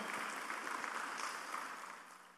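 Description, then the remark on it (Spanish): An audience applauds together for Christ, a dense, steady crackle of many hands clapping at once that gradually softens toward the end. No voices come through over it. “Dele el aplauso a Cristo, por favor, esta noche.”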